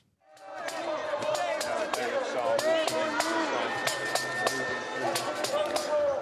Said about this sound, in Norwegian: Ja, her hører vi altså demonstranter som roper mot britisk politi, mens eh, politiet rydder vekk en teltleir i hjertet av Londons finansdistrikt.